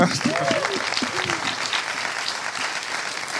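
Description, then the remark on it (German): Steady, dense applause from a live audience for a guest being introduced, a crackle of many clapping hands that holds level throughout, with a few brief voices or whoops rising over it at the start. “Einen ganz großen Applaus”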